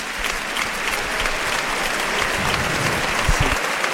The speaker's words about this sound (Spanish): El que recibe una ovación del público.